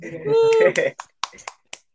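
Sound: hand clapping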